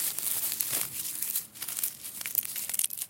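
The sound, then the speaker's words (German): Dry mulch layers of last year's plant residues crunch and crackle underfoot in a steady series of crisp rustling steps, with no voices present. “Genau, hier sind äh, ja diese Mulchschichten, ne? also das vom letzten ja. Jahr, diese Pflanzenreste. Ja. Sieht man hier, hört man auch.”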